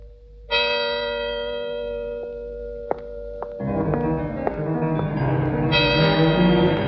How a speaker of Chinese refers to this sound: 午夜的钟声敲响了，辛黛瑞拉猛然想起仙姑的忠告，急忙跑出王宫，匆忙中跑掉一只水晶鞋。